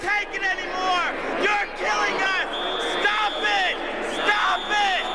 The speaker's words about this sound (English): the police and people are screaming and people are throwing things and it's crazy and people get arrested.